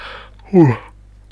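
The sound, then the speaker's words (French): A single voiced yawn with a falling pitch, loud for about a quarter second and then trailing off into quiet, with no talking around it. “J'avais je ne serais pas crevé, mais je baille un peu quand même.”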